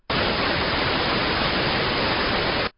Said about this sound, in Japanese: white noise, a scientifically designed sound that helps you fall asleep. 本当だね。scientifically designed sound. 科学的に設計された音で、この音が helps you fall asleep. 眠りを助けてくれるってことだね。でもホワイトノイズって、一体どんな音なんだろう気になるなビリー君、ホワイトノイズ、こんな感じですよ。